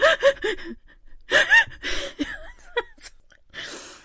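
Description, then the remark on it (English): A voice imitates crying with a series of shaky, sobbing gasps, several sharp catching breaths and whimpery vocal bursts over about four seconds, fairly loud. “So I kind of sheepishly packed up my stuff, but I was still crying. So every so often i go”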